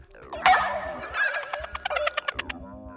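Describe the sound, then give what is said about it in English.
A shrill, warbling screech from a creature's mouth tubes rises sharply, then breaks into a rapid series of wet chittering clicks, fairly loud with no talking. “The mouth tubes on the creature I tossed aside was now screeching.”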